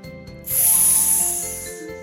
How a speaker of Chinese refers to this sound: 皮球就漏气了。